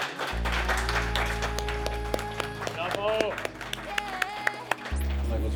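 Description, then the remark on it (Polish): Applause from a crowd for Stronghold, the league-winning team in first place with 259 points: a dense patter of many hands clapping with a few sharper individual claps, over a steady low hum and a murmur of voices. “259 punktów, brawa dla najlepszej drużyny całej lidy dla zwycięzców, drużyna Stronghold.”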